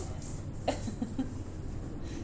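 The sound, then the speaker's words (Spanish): A soft cough bursts out once, followed by a few smaller, clipped coughs in quick succession, fairly quiet against a dull background hum. “Perdón, ese quiere toser.”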